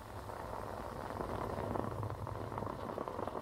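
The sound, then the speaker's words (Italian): A steady bubbling and gurgling of a moka pot as the coffee rises, continuous and fairly loud for the whole stretch with no voices. “Sul suono di questa caffettiera che sale riprendiamo l'esercizio e rieccoci.”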